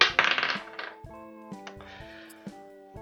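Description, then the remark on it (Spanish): A die clatters and rattles loudly for about half a second, then a ringing metallic tone lingers while several softer clicks and taps follow at irregular intervals. No one speaks. “Entonces, está aquí el dado. Ah, y lo estoy lanzando en este mismo instante.”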